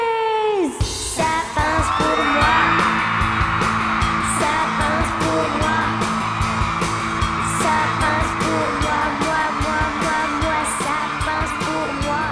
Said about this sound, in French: Dans la foule est en délire. Le concert est un triomphe.